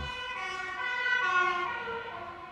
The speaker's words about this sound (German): Feuerwehr. Feuerwehr, nicht Krankenwagen.